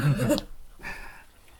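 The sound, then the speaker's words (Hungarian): Sheep in the neighbouring yard: one gives a short, wavering bleat, followed by a fainter, breathier call that fades out; no one speaks over it. “Hallgatók, halljátok a szomszédban a birkákat?”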